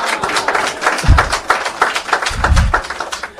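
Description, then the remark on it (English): An audience at an evening event broadcast live on Choc FM 105.1 applauds steadily, a dense wash of many hands clapping throughout, with a couple of dull low thumps mixed into the noise. No one speaks. “Ça mérite des applaudissements, j'imagine.”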